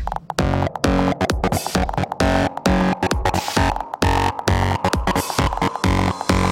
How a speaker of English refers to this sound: Okay. Now, we need some fat distortion.